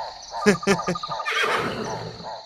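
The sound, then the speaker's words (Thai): A horse whinnies loudly, a shaky, rising neigh with quick pulsing bursts that tapers off into breathy snorting over about two seconds; the royal horse of King Brahmadatta, being led to the upstream river landing. “ม้ารังเกียจท่าน้ำ”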